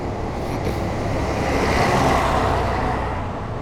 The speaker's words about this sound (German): Da vorne kommt der große Bus, ich mache kurz Pause.